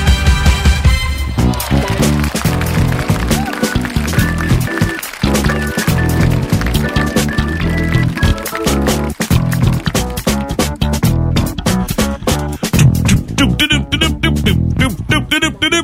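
Upbeat, bouncy sitcom-style background jingle that resembles the Seinfeld theme plays continuously and fairly loud, with punchy plucked bass and sharp percussive hits driving a quick, syncopated rhythm. No one speaks over it.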